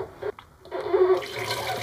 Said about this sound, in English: and this noise here is me washing the dishes.